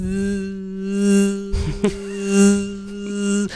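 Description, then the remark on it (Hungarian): A steady, high-pitched electric buzz of drones hovering overhead, droning continuously with a rhythmic swell and fade and a brief rattling interruption partway through; no voices. “ez lesz fölöttünk, még nem látjuk az eget, tudod, a drónok miatt.”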